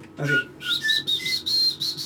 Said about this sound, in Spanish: Yo, yo, yo silbo así. No me lo ah, aceptaron. Silbido …, sí.